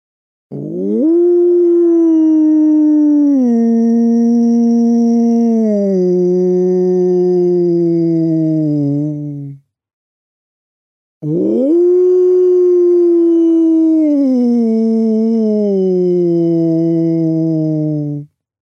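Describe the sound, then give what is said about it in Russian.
As a vocal exercise, a person imitates a wolf howl twice, tensing the vocal cords and then gradually relaxing. Each loud, sustained call lasts about eight seconds, rising quickly and then sliding downward in steps, with a brief silent pause between the two. “А то, что мы делаем э, вой волка, там здесь уже больше схватить его, этот звук, напрячь связки, а потом потихонечку, потихонечку расслаблять и выходить на собственный голос.”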